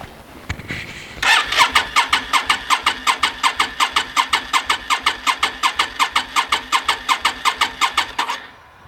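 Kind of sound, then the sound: vehicle, car engine cranking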